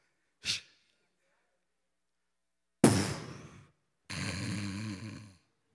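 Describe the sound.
A person imitates snoring: a quick sharp puff, then two drawn-out, rasping snorts, the second buzzy and sustained. Fairly loud, with no talking.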